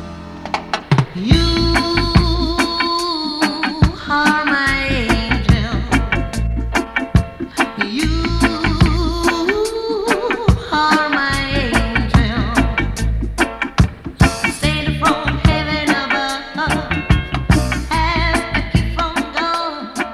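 A 1973 song by a Jamaican reggae singer plays loudly and continuously, with sustained melodic lines over a steady percussive beat and rich bass; no one talks over it.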